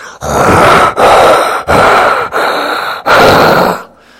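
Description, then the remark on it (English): A voice imitates heavy, rasping breathing as if through a gas mask: five loud, hoarse breaths in steady rhythm, each ending in a short pause, with no talking. “I liked taking tests in silence, but it always seemed like we'd have someone in the back who sounded like they're breathing out of a gas mask.”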